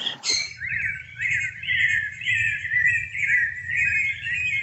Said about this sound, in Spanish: ¿Has escuchado el parloteo de loros y cotorras al amanecer?